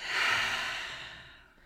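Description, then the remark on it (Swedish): A person takes a deep breath: a single deep, breathy exhale, soft, swelling quickly and then trailing off over under two seconds, with no talking. “Vi tar in lite Virgo, vi andas in. Andas ut.”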